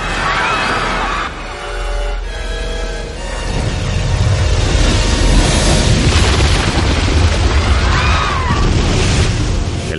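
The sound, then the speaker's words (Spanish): The raised half of a huge ship, its hull cracked through the middle, slams onto the water with a deep, thunderous boom that swells into a loud, sustained roaring rumble and crash of churning water, with faint cries. “La mitad elevada del buque cae sobre el agua.”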